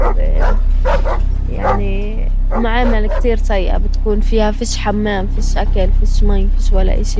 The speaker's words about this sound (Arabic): حطوا جنبك كلاب بضلوا يعو